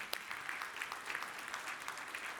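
A church audience claps steadily for a couple of seconds, a dense patter of many hands with no voices over it, applauding a couple celebrating 39 years of marriage.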